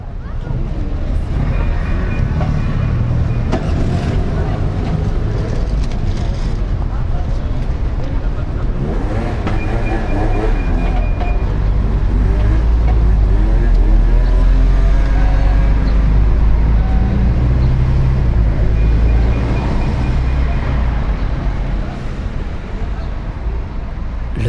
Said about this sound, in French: le 24 mars 2021, j'organisais une balade sonore place Castellane à Marseille hein, pour faire découvrir quelques sons envahissants de notre paysage urbain auxquels souvent nous ne prêtons pas attention.